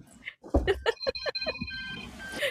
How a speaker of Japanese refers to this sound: また電話だよ。テレフォンだ、テレフォン。